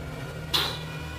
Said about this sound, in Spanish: se cierra con un portazo.